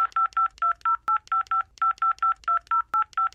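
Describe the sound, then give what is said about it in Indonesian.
A rapid run of telephone keypad tones as a customer number is entered on an internet provider's phone menu, about sixteen short dual-pitched beeps in quick, steady succession with tiny gaps, loud, with no voices. “Tekan satu untuk layanan berbahasa Indonesia dan tekan dua untuk masukan 49 nomor pelanggan Anda yang Anda pasti tidak hafal dan akhiri dengan tanda pagar.”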